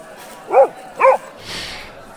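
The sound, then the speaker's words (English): A dog barks twice in quick succession, two short, sharp yaps about half a second apart, fairly loud, followed by a soft breathy huff. “Who better else to, else, else better better else to get quarantined with a dog that hangs out like a big cat.”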